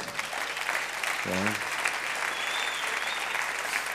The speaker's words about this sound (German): Und äh, gib den Ruben doch mal einen ganz kräftigen Applaus.